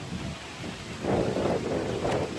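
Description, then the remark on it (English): Strong wind buffets the microphone outdoors, a continuous low roar that surges in gusts partway through, with rumbling bursts and a faint rustling of pages and trees underneath. “Well, and it's very windy, so so pardon the uh, rustling of the pages and trees.”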